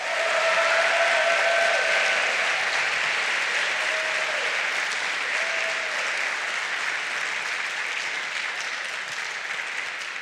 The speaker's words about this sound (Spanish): Dele el aplauso al Señor. Dele el aplauso al Señor. Déselo más fuerte, más duro. Déselo a Él.